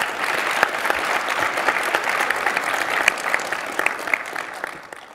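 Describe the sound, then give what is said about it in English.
A crowd applauds the panelists at the end of a panel session, steady dense overlapping claps forming a bright, sustained wash that holds at an even level for several seconds before tapering slightly at the end. “Uh, why don't we give a big round of applause to our panelists?”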